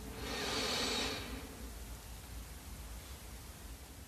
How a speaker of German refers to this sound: Wir nehmen den zweiten tiefen Atemzug und atmen ein.